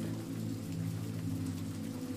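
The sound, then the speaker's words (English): Steady rain falls continuously on a village with a soft, even hiss, layered over a low, constant rumbling hum. The sound stays level throughout, with no voices. “Cozy autumn vibes and rain sounds help you fall asleep in tonight's rainy bedtime story”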